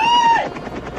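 A loud helicopter, one lent to Paris Hilton, passes by, a high turbine whine fading quickly into the rapid, steady chop of rotor blades for about a second, with no voices.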